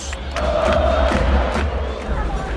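A football stadium crowd in Bogotá roars steadily through a night match between Millonarios and Bucaramanga, a dense wall of overlapping voices and cheers with occasional sharper shouts rising out of the constant din.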